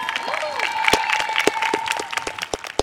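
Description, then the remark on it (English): A crowd of about 300 family members applauds eighth grade graduates filing out onto a lawn for an outdoor graduation ceremony on a spring day. The clapping is dense and overlapping, with scattered sharp claps standing out and faint cheers and whistling tones rising above the sustained wash of applause. “Give them a hand, please.”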